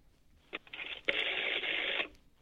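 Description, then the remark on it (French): A phone call connecting to SVP, the free poetry voice server of the Home Théâtre company: a couple of short clicks followed by a steady, band-limited burst of telephone-line noise lasting about a second before cutting off. “Et donc, par exemple, aujourd'hui, nous avons appelé ce SVP. Ça ressemble à ça.”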